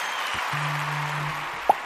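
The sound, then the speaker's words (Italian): A crowd applauds Orfini as he works on the streets of Rome, in a steady, dense wash of clapping at moderate volume, with a low hum underneath and a brief sharp sound near the end. No one speaks. “Orfini dal suo audace esempio lavorando per le strade di Roma mentre la folla lo applaude riconoscente.”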